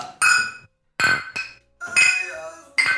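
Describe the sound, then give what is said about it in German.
Glasses clink together in a beer toast, several bright ringing taps in quick succession with shimmering overtones, fairly loud, with brief pauses between the strikes. “Okay, mit einem Glas ist es umgekehrt.”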